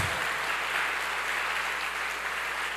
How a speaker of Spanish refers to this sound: Fuertes aplausos aplauso al Señor. Fuertes aplausos,